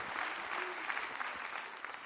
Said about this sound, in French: C'est bien que vous applaudissiez.